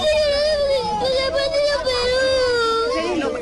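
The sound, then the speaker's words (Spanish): A Peruvian man cries in a loud, sustained, high-pitched wail, one unbroken sob that wavers in pitch from start to finish, with no talking. “La sensación de todos los peruanos, él está llorando.”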